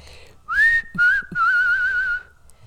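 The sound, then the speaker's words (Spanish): A person whistles a short, wavering tune in three phrases, the first rising and the last long and slightly trilled, clear with no talking. “Entonces yo no la tengo porque así puedo silbar.”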